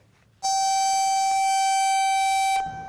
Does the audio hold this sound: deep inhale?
no